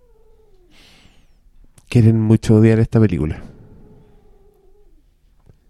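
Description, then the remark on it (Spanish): A female cat gives three loud, drawn-out angry meows in quick succession, with people talking quietly before and after. “Mi gato está enojada.”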